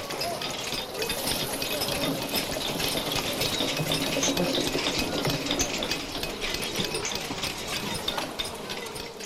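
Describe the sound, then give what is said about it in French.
A wooden squirrel-cage treadwheel crane turning, as would have been heard on the cathedral square during its construction, giving a steady, dense wooden rattle and clatter of rapid clicks and creaks that runs evenly from start to finish without pause. “Si vous tendez l'oreille, vous retrouverez sûrement le son de la cage à écureuils.”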